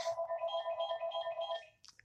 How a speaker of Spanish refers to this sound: Suena el teléfono.